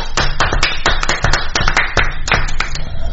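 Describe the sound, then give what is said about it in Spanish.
Loud applause made of sharp, steady hand claps in a quick regular rhythm, roughly five per second, continuing for about three seconds with no voices over it. “Aplausos.”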